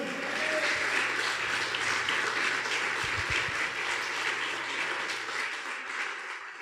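An audience applauds loudly, a dense, steady wash of clapping from many hands that holds strong throughout and tapers slightly toward the end, with no voices.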